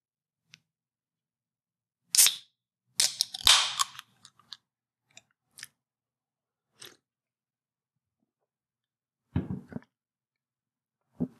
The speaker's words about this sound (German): Diesmal aus dem schönen Zypern hier. Ich habe mir jetzt so ein Kio-Bier gibt es hier. Das mache ich mir jetzt mal auf für euch.